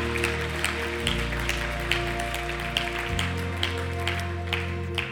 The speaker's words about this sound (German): Lasst uns einen Applaus geben, das gemeinsam feiern.